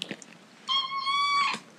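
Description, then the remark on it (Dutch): A single drawn-out meow from a pet cat, clear, lasting under a second, with faint rustling before it. “mijn kat is het ermee eens.”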